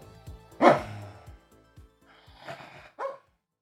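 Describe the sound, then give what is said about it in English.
A dog barks: one loud, sharp bark near the start, then a quieter rough bark or growl, and a final short yip, with faint shuffling between. “I'll let you listen to that now while I control the monster from the deep.”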